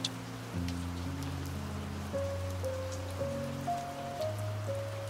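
A soft, steady patter of light rain hisses evenly throughout, with scattered drops, while gentle sustained keyboard chords play slowly underneath. No one speaks.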